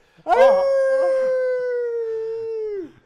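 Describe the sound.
A person lets out a long, loud wolf-like howl, rising sharply then holding a steady tone for about two and a half seconds before dropping off, heard alone.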